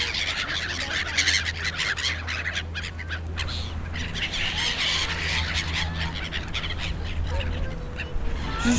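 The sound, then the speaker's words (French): A noisy flock of seagulls squabbles over pieces of bread at the edge of the Flagey ponds in Brussels, with overlapping squawks and harsh calls, dense and continuous, over a steady low background hum outdoors. “Ça, c'est le bruit des mouettes qui se disputent des morceaux de pain sur les bords des étangs de Flagey.”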